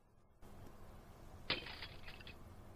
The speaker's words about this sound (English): Jill heard something like breaking glass and held perfectly still, listening.